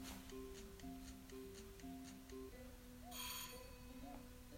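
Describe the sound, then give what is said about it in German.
An electronic ringtone plays a repeating pattern of short tonal beeps at a steady rhythm, followed by a brief burst of noise, fairly loud with no talking. “Oh, jetzt klingelt jemand. Welcher Keck klingelt?”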